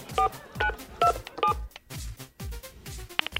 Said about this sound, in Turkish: Arıyorum. Arıyorum. Araydır. Arıyorum.